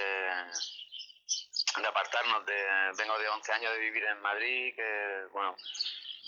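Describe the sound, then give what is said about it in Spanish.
Birds chirp and sing faintly in the background, surrounded by nature, while a man talks steadily, their high twittering notes peeking out between and above his speech. “Rodeado de naturaleza, incluso podemos oír los pájaros de fondo.”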